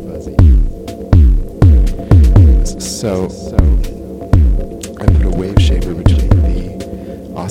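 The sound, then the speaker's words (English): A buzzy triangle-wave synth bass from a Thomas Henry Bass Plus Plus circuit pumps out a steady run of about a dozen punchy, loud notes, each sliding sharply downward in pitch. A voice briefly speaks near the start. “Another thing I didn't like about it too much was the fact that the output is a triangle wave. This is that that sounds like a little bit buzzy.”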